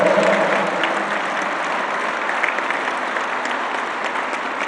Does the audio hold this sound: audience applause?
yes